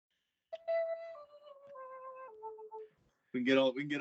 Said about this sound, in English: call Indian chime if you want. We got it. We're recording, man. Get that get that chiming going, man.